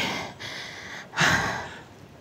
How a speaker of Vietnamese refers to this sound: anh nghe hơi thở của em không có được bình thường em mệt lắm phải không